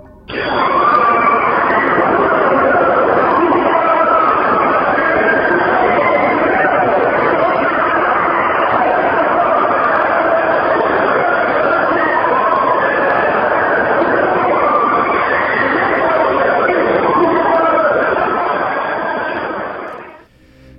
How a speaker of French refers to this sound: Voilà, donc c'est vrai que euh, si, on imagine l'enfer peuplé de damnés qui hurlent, hein, ça, se rapprocherait, euh, ça de ça, je pense.